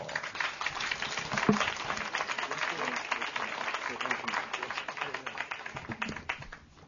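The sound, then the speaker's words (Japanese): An audience applauds to welcome speaker Hiroshi Kamata, author of a talk on what Disney's god of cleaning taught. Many hands clap at once in a steady, dense clatter, holding an even level for several seconds before tapering off at the end. “えー、続いて、えー、ディズニー掃除の神様が教えてくれたこと、えー、鎌田博さんですそれでは大きな拍手でどうぞ”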